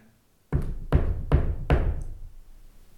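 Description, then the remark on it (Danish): Four firm knocks on a wooden table in a steady rhythm, fairly loud, each with a short resonant decay; no one speaks. “Jeg banker i bordet, nu må det sætte ved.”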